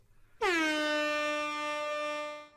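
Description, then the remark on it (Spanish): A single loud air horn blast kicks in abruptly and holds a steady, brassy tone for about two seconds before cutting off, with no voices over it. “Es que sí tiene una bocina tiene una bocina.”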